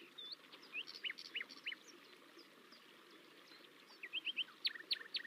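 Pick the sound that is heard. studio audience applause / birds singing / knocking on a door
birds singing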